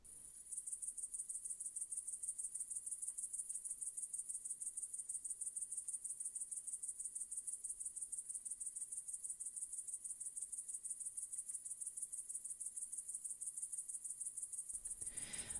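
A dense, continuous chorus of crickets chirping in the evening in a steady, rapid pulse, shrill and high, filling the whole stretch without pause, with no voices present before it cuts off abruptly.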